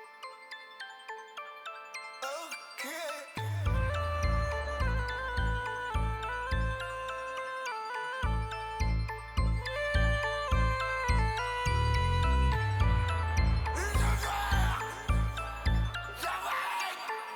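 A song's instrumental intro opens with a light, chiming bell-like melody, then a heavy pulsing bass beat kicks in after a few seconds and drives a steady, loud rhythm with no vocals yet.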